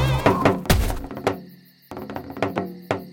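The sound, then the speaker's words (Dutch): A man practising on a drum, tapping it lightly with small sticks: a handful of soft, uneven hits spaced out after a brief tonal sound at the start, fairly quiet. “Ik hoor het geluid. Het komt van die man met zijn trommel.”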